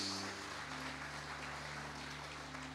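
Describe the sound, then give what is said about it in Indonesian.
An audience applauds for Jesus in a steady, dense wash of clapping, with a sustained low instrumental tone humming underneath and no one speaking. “Tepuk tangan buat Tuhan Yesus.”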